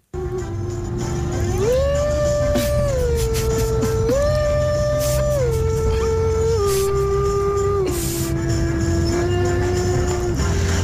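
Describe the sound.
A radio listener imitates a police siren with one long, loud wailing tone that steps up and down between two pitches for about ten seconds.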